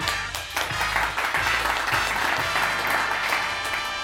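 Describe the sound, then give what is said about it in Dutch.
Loud, sustained applause from a television studio audience welcoming Japanese tidying expert Marie Kondo as a guest, a dense wash of many hands clapping at once that stays steady for the whole stretch, with no one talking over it. “Mag ik eerst, eh, allereerst een davend applaus”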